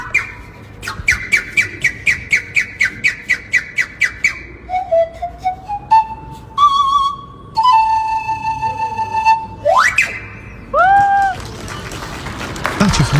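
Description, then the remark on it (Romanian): Several neighbours whistle from the surrounding windows in reaction to a musician playing the nai on his balcony: a quick run of sharp repeated chirps, then long steady tones, a rising slide, and a few swooping whistles, with no talking. “Cine mă fluieră? Ce tot fluieră?”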